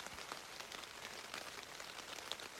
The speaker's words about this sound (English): Packs are about ready to go. just got to tear this teepee down. If it stops raining.